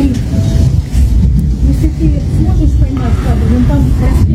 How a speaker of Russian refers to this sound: Сегодня дали зеленый коридор. Выехала колонна. Несколько машин вернулись обратно. Вот это вот одна вернулась обратно.